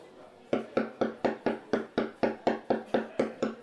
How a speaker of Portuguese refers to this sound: Nos fundos atrás do balcão, ele abre uma porta e vai nos fundos. E aí vocês escutam um barulho de alguém batendo na mesa.